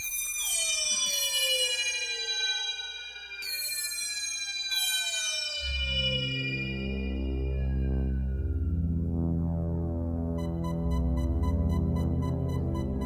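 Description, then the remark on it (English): A synthesizer opening-credits theme: loud descending electronic glides that sound almost like sirens give way to a dense, throbbing pulse pattern, with faint high bleeps entering near the end. No one speaks. “It is wonderful, um, but I, I really, I couldn't help but think one minute into the opening credits that this was reminding me of dial up when I was waiting for internet pages to load up.”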